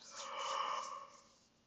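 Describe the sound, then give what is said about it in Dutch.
A single drawn-out yawn, breathy and soft with a faint voiced tone, swelling and then fading over under two seconds, with no talking. “Ah, ik moet ook even goed gapen.”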